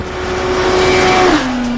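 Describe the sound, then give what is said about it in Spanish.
The engine of a new Suzuki GSX-R1000 sport motorcycle screams loudly at a steady high pitch on the Ryuyo test track, then its tone drops abruptly near the end as it shifts or passes by, with no talking. “La nueva Suzuki GSX-R1000 estuvo meses en la pista de pruebas de Ryuyo.”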